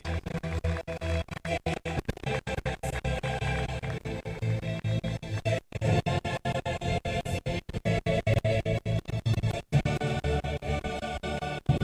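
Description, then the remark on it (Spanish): A crowd claps and cheers steadily for about twelve seconds for the Escuela de Fútbol Danis Pérez at a youth football championship, a dense, loud wash of applause mixed with music playing underneath, with no one speaking. “Un fuerte aplauso para la Escuela de Fútbol Danis Pérez.”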